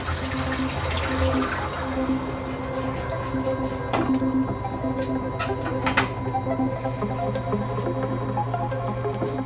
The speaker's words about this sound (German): Dafür wird zuerst pulverisierter Elektroschrott, das ist dieser schwarze Schlamm, mit einer großen Portion Wasser gemischt.